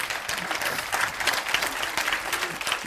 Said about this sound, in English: I'm going to wait while four people clap their hands.